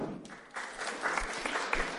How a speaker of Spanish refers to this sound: Esa es una lectura de Momo de Michael Ende. Un aplauso.